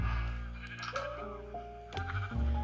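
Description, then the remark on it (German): Several sheep bleat in overlapping, wavering cries, one after another, loud, with no talking. “Wie viele Schafe das hier sind.”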